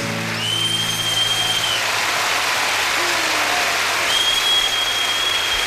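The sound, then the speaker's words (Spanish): Steady applause from a crowd at a second band special show held in a parish fills the whole clip, a dense continuous patter of clapping with a couple of long high whistles rising above it. “aplaude, hay la gente como está aplaudiendo. Es increíble.”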